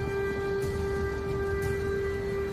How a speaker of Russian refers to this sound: В городе слышны сирены воздушной тревоги.